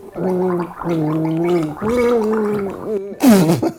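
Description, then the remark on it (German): Someone gargles water while humming a Christmas carol melody, a few sustained bubbly notes in steady phrases, ending in a louder, sputtering gurgle. “Das ist Odo Fröhliche.”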